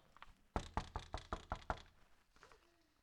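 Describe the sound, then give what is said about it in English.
Six firm knocks on a door in a quick, steady rhythm, loud, followed by a brief quiet stretch with faint background sound. “He knocks on every believer's heart to come in closer to him by prayer, his word.”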